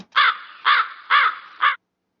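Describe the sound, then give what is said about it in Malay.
Four harsh, raspy crow caws in steady succession, loud, each a short grating burst with brief pauses between, and no other sounds around them. “Malu bunyi gagak.”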